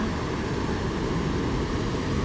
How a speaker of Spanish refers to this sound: Qué rico escuchar el oleaje.